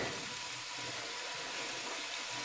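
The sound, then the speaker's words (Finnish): A steady rush of water pours from a kitchen tap, a continuous bright hiss with no pauses, fairly loud, with no voices over it. “Mä lasken tästä tätä vettä vielä.”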